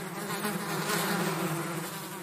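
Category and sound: insect, buzzing swarm of bees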